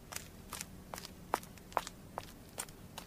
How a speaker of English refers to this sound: D'Artagnan was in his room upstairs when he heard a woman hurrying down the street